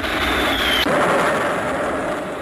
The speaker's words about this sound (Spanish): Al estruendo de fusilería y gruñir de morteros, se une el ruido de aviones que sobrevuelan la plaza de los rebeldes, escupiendo metralla sobre las instalaciones.